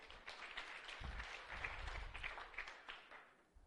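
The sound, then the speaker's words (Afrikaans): A crowd at a Woordskool evening applauds its first-time attendees with dense, continuous hand clapping that swells slightly in the middle and tapers off toward the end, with no voices over it. “Kan ons vir hulle 'n heerlike hande klap gee?”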